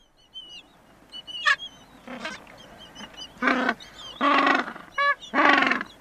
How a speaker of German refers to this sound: Die Falklandinseln vor der Südspitze Südamerikas. Hier leben die Eselspinguine. Den Namen verdanken sie ihren wiehernden Rufen.